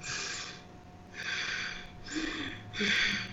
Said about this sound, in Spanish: Está inversa la respiración. Esa es la respiración de un toro enojado.